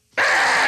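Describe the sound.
A person imitates a female sloth's mating scream, the vocal call females make from their trees until they find a mate: one loud, shrill, sustained cry lasting just over half a second, cutting off abruptly.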